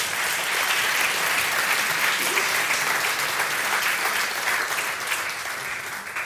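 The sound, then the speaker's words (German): Sustained applause from a large audience for a woman coming onto the stage, a dense, steady wash of clapping that holds at a fairly loud level throughout and tapers only slightly near the end, with no talking. “Guck mal, du hast noch gar nichts gesagt und schon kriegst du deinen Applaus.”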